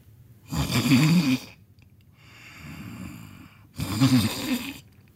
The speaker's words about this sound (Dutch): Een ogenblik later waren beide koninginnen diep in slaap en luid aan het snurken.